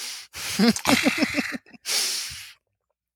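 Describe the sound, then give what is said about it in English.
Someone takes a sip of water: a breathy slurp followed by a quick run of about five rhythmic gulping pulses, then a short pause and a long hissing exhale like a sigh. “Let me get a sip of water.”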